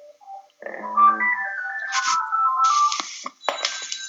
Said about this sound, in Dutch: Gaat de telefoon? Ja. Ah, hij is al stop.